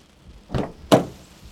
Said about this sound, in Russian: Выругался он и открыл дверь.